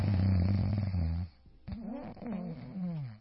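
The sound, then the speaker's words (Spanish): A person imitates snoring: a long, loud, rumbling snore, a brief pause, then two more drawn-out, throaty snoring sounds with a nasal, rattling quality. “Así ronco ya.”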